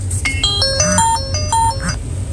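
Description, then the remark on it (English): An electronic alarm rings out in a quick, melodic sequence of bright beeping notes, loud, with a low hum underneath and no one talking. “Like you see, every time I say something something powerful, you hear the alarm ring off.”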